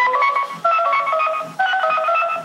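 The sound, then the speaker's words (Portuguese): A short melodic jingle hummed in a steady, nasal voice, three connected phrases stepping between sustained pitches, fairly loud with no other sounds, imitating the collect-call phone tune, as a man answers a phone on speakerphone. “e o … põe o telefone no Viva Voz, atende o telefone e cantarola aquela musiquinha de chamadas a cobrar.”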